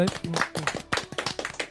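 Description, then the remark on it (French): A small group claps in quick, irregular bursts, fairly loud, with overlapping hand claps filling the short moment and some voices mixed underneath; applause for a film prize awarded to Nicky Larson. “Il le mérite, on peut l'applaudir.”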